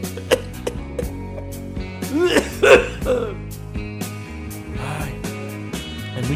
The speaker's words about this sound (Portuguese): muito bom quando você força a tosse e a tosse que vem depois da tosse forçada é uma tosse verdadeira, né?